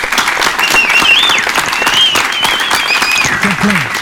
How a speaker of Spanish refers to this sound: Aquí, Arcángel de Rock Show, un aplauso a Austin.